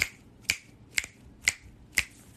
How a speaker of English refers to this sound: I'm snapping because the money supposed to come when I snap like that.